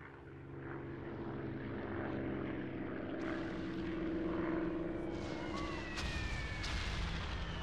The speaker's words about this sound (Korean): 동쪽 하늘 어디선가 이 작은 마을로 24대나 몰려왔다는 폭격기 소리가 들리는 것 같았다.